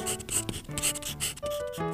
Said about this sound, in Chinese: 法官拿出纸笔，写了一些字。